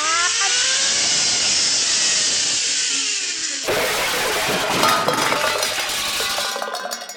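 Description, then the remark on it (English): A bowling ball whirs and rumbles along a zipline bowling alley for a few seconds, then smashes into tin can pins, setting off a loud metallic clatter of clinking, rattling cans that gradually settles. “I've got some pins to knock down.”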